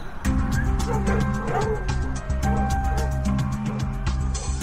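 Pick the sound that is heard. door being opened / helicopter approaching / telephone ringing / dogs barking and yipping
dogs barking and yipping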